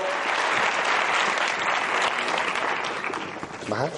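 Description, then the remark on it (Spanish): An audience claps steadily for several seconds, a dense, even wash of many hands that stays loud throughout, with a voice briefly cutting in near the end. “Un aplauso, por favor.”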